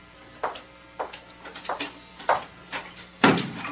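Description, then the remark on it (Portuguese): A door is closed with a solid thud at the end, preceded by a series of lighter knocks and shuffling bumps at a steady pace, with no voices. “Agora saia e feche a porta.”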